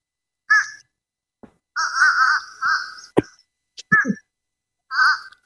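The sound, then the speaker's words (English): A fish crow gives a series of short, nasal, hoarse calls, some paired or drawn out, spaced irregularly with brief gaps, alongside a few sharp clicks and thumps. “And I'm going to say this is a fish crow.”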